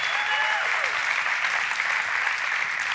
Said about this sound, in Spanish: Y no se me hizo un lado. Así que denle un aplauso por favor a la pastora.